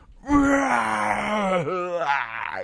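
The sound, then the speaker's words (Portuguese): One voice imitates a disappointed crowd of racing fans reacting to Rio de Brand hitting the wall on the last corner of a 2011 race, letting out a long, loud, sustained groan that holds a steady pitch, dips briefly, then trails off into a rougher, breathy moan. “Reação da torcida, um.”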